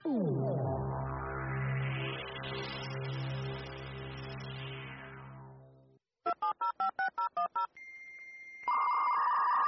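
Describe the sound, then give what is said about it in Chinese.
A dial-up modem connecting over a telephone line to go online: a steady buzzing tone, a quick run of about seven dialing beeps, a brief tone, then the harsh, bright screech of the handshake. No voices. “规工电话用甲叽叽叫，小气啊啦！ 哦妈，你少吐了，我是在上网啦。”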